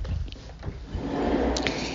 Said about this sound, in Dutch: Doe even de deur dicht hier. Sorry voor het geluid, maar even de deur dicht.